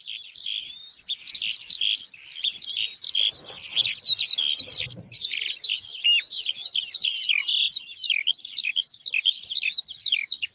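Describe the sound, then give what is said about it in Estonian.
A skylark sings a long, unbroken stream of high, rapid warbling and trilling notes, steady and fairly loud, with a brief patch of low rumbling noise partway through. “aga ma nüüd lasengi sulle siis eh, seda põldleokese häält, ma samal ajal äkki eh, kõik saaksite siis teada, et mismoodi see põldleoke”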